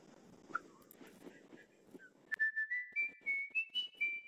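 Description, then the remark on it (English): A short whistled Old Spice advertising jingle plays: a bright, clear melody of about seven quick notes that climbs upward, following a couple of seconds of muffled, noisy background. “We're back to Old Spice again.”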